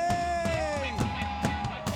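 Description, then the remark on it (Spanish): A large crowd shouts and cheers joyfully to the Lord as their king, loud and sustained, with strong rhythmic beats or claps landing about twice a second beneath the sustained voices. “¿Cuántos pueden dar un grito de júbilo a su rey?”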